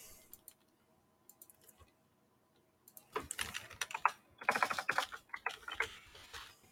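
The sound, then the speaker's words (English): Sparse clicks at first, then a burst of rapid, uneven typing on a computer keyboard to fix on-screen text, fairly loud, with clustered key taps and no voices. “Are, are you typing your answer?”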